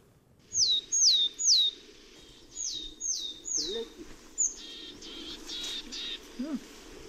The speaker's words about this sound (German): ich habe eine Attrappe abgespielt, also den Gesang der hessischen Weidenmeise